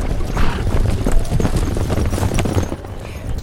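A field of racehorses ridden by jockeys gallops past during a horse race in a dense, rumbling rush of hoofbeats, a loud, continuous thundering with no clear individual strikes, fading slightly toward the end.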